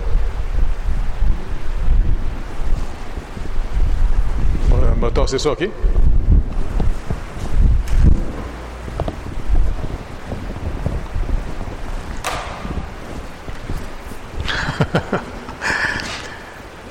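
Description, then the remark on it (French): Low, blustery rumble of wind buffeting the microphone, continuous and fairly loud, with brief gusty bursts, while a man speaks over it. “Je ne sais pas cest c'est-tu le vent qui fait ça?”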